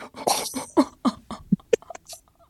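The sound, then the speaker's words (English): A burp that comes out sounding like a fart: a rough, sputtering run of short guttural bursts over a couple of seconds, the last few lower and more tonal, with no talking. “Was that a fart and a burp at the exact same time?”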